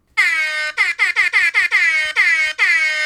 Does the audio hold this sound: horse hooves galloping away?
no